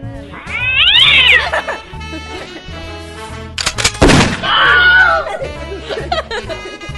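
A cat yowls loudly in long, wavering caterwauls, breaking off for a sharp burst of noise midway before another drawn-out wail, with low background rumble throughout.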